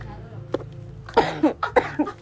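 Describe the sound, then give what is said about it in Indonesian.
A short run of four or five harsh coughs in quick succession, fairly loud, after a brief quieter moment with low background hum. “Tuh gue jadi batuk gue”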